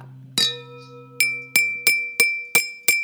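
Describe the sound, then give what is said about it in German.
A beer bottle and a drinking glass clinking: one sharp strike, then after a pause five ringing taps in a quick, steady rhythm, each leaving a bright lingering tone, with no talking. “Okay, das ist eine Bierflasche, das ist ganz klar.”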